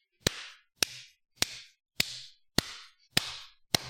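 A slow, deliberate clap: seven sharp, crisp hand claps spaced evenly about half a second apart, each with a short ringing tail. No voices are heard.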